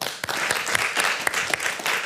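Steady audience applause fills the room, a dense wash of many hands clapping at once with a few sharper claps standing out, sustained and fairly loud throughout.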